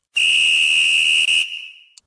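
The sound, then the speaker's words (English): A single loud, shrill whistle blast, blown to start a two-minute drill, held steady for over a second, then trailing off, followed by a tiny chirp at the end. No voices. “Blow the whistle? Blow the whistle.”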